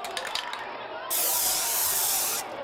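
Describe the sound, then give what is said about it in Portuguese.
A spray paint can releases one steady, loud hiss lasting just over a second, preceded by a few faint clicks and rustles; spray cans used to tag the 29th São Paulo Bienal at its opening in September 2010. “E se na edição anterior o alvo das latinhas de spray tinha sido o andar vazio da Bienal, dessa vez elas miravam uma obra específica,”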